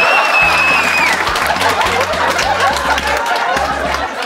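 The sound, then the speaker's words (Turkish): A crowd bursts into sustained applause, a dense, steady wash of clapping for the whole few seconds, with scattered laughter and chatter mixed in and low musical notes underneath. “Alkışlamayın.”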